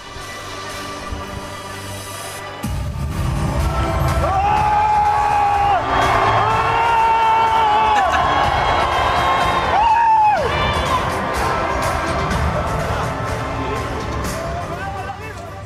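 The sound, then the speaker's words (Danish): A large, loud crowd of Marine Le Pen's enthusiastic supporters cheers and whoops as she takes the stage at an election campaign rally in southern France, with rising shouts and yells blending into a dense roar that swells around the middle before settling into sustained cheering. “det er selvfølgelig den øh, franske højrefløjsdronning Marine Le Pen og hendes begejstrede fans, vi hører her.”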